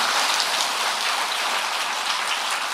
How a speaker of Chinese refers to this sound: 掌声不是太热烈，下半部就不讲了。